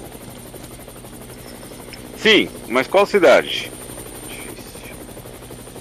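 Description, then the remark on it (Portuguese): Steady, droning helicopter rotor noise from inside a helicopter flying over Washington fills the background throughout, with a low rhythmic thrum, while a man aboard briefly speaks over it in the middle. “Eu tô no helicóptero.”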